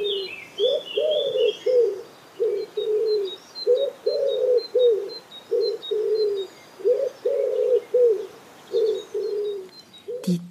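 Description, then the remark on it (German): A wood pigeon coos in repeated phrases of soft, low, hoarse notes with short pauses between, while fainter high bird chirps twitter in the background. “Ebenfalls in der Stadt lebt die Ringeltaube und die klingt so.”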